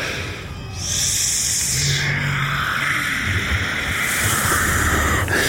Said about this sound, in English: This hissing, and they start to writhe up the hills towards you. These there's there's two of them.